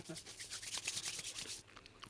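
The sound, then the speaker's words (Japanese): Macadamia nuts being crunched while eating: a rapid, dense run of bright, crackly crunches for about a second and a half, then softer, sparser chewing. No one speaks. “うーんうまいやばい、止まらないもうボリボリいっちゃいます。”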